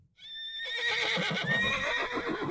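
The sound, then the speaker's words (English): A horse, spooked by a firecracker bursting at its feet, lets out one loud, shrill whinny as it rears up, rising and trembling for about two seconds over a low, rough rumble. There is no talking. “The cracker burst with a loud sound, spooking the animal and causing it to rear up.”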